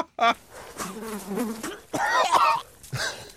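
A large fly buzzes in uneven bursts, its droning hum wavering in pitch and loudness before cutting off, with a few short sharp noises in between.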